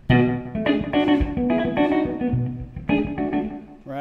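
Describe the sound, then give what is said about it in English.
An electric guitar plays a short run of ringing chords and notes through a slap delay, each attack trailed by a quick echo, steady with no voices. “And then our little slap delay, which I was kind of messing around with earlier”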